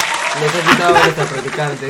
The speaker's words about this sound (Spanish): Un aplauso. Un aplauso para ella. Bravo, No, eh, Nos un aplauso, un aplauso.